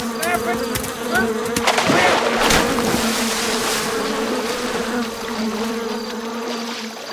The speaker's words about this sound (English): There's a bee in my pants.